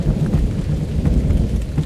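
A steady, loud low rumble of thunder rolls on without a break, with a faint patter of rain spread across it. No voices can be heard.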